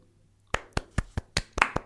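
After a brief quiet moment, a short burst of hand clapping begins: about eight sharp, crisp claps in a quick, steady rhythm, fairly loud, with no voices.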